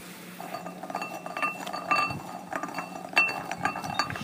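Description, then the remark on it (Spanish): Red coffee cherries being moved around rattle and clatter across a small ceramic plate, a continuous jumble of light clinks and scrapes with brief louder bursts, no voices. “Vamos a ver cómo suenan cuando los movemos que están sobre un platico.”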